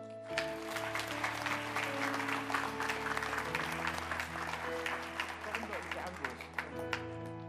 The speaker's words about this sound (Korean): 큰 박수로